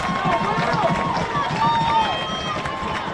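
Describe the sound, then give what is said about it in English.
A dense, steady roar from a large baseball crowd cheering for the TCA team fills the whole stretch, with high shouts and whistle-like cheers rising above the din; loud and continuous, with murmured voices mixed in. “And the TCA crowd has roared back to life.”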